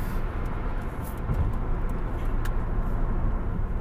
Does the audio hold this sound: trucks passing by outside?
yes